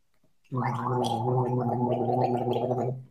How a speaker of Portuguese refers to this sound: Você vai basicamente pegar uma garrafa de água, pode ser um copo d'água da torneira, tanto faz, okay. e você vai fazer um gargarejo. Com água com a água, porque a hum. gente quer aprender exatamente onde é que esse som é feito.